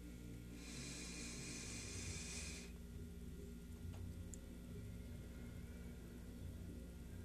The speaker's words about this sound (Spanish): El ejercicio es el siguiente. Primero, respirando. Vamos a respirar juntos.